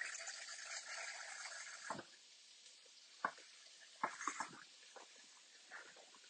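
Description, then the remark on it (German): About 150 millilitres of water for broth pours into a measuring jug in a steady stream for about two seconds, then stops, followed by a few scattered drips and light clinks. “Mache in der Zwischenzeit meine Brühe fertig. Einmal 150 Milliliter Wasser.”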